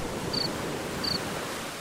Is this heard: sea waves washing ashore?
yes